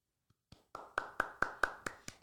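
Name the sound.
hands clapping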